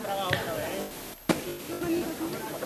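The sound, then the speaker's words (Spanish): Two sharp wooden knocks from a capataz's hammer striking a procession float, a palio in Triana, ring out, the second louder after a brief hush, over a steady murmur of a crowd talking. “Aquí seguimos, escuchamos ese martillo.”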